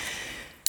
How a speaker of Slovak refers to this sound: Ja si otvorím pivko.